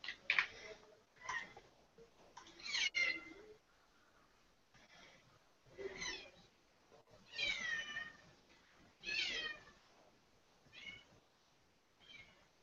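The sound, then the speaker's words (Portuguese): A pet cat meows loudly again and again, around eight drawn-out, wavering cries spaced a second or two apart, somewhat muffled behind a closed bedroom door, leaking into a live online call, with no talking. “Tem um gato miando aí loucão aí.”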